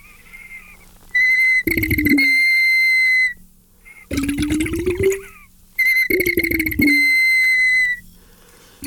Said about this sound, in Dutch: En sommige, deze bijvoorbeeld. Dus je, alleen door de pot te bewegen kan je, kan je het laten fluiten? Ja.